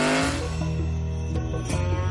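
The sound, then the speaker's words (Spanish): Two car engines rev hard together, a loud, steady roar with rising pitch, continuous with no talking over it, as Walter and Walter Jr. in Breaking Bad press the accelerators of their cars, one a red Dodge Challenger. “Walter y Walter Jr. pisan el acelerador de sus respectivos coches.”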